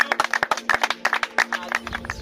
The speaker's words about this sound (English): We clap for you.